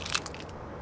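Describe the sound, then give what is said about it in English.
A sharp crunching crack like a bone snapping as a forearm lands on a block of ice in a fall, with a quick burst of brittle crackles at the start that fades into a faint hiss. “where you kind of go underneath like a uh, a cliff and you're like kind of climbing damn near uh, like dangling off it and he slipped and fell and his forearm landed on a block of ice and you'll just hear this crack”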